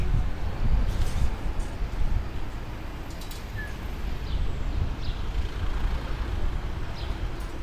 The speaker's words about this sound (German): Aber lasse kurz den äh, republikanischen Bus durch.